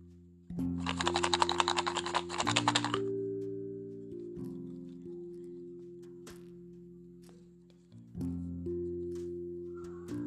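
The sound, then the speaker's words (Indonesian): A burst of crisp rustling and clicking as hands rummage through paper slips in a box, lasting a few seconds over a soft, steady background music bed, followed by faint scattered ticks. “Wow, ini adalah kertas yang aku dapat.”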